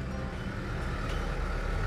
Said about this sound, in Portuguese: A gente tá passando um caminhão gigantesco da Ambev aqui num espaço minúsculo na rua. Tô vendo o cara tirando uma fininha do retrovisor do meu carro.